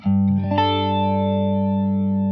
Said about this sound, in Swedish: Verkligen händer någonting med EQn så fort man trycker in Flanger. Det blir ja, burkigt på något sätt.